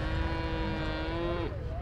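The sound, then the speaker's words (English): A seven-year-old Shorthorn cow, Supreme Champion at the 2017 Royal Manx Agricultural Show, lets out a single long, steady moo, its pitch bending and dropping at the very end, with a low rumbling background underneath. “all absolutely delighted with taking the Supreme Championship at this year's 2017 Royal Manx Agricultural Show with their seven year old Shorthorn cow.”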